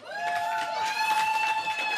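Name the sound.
audience applause and cheering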